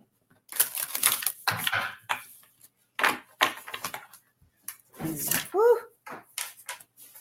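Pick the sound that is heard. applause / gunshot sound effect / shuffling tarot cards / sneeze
shuffling tarot cards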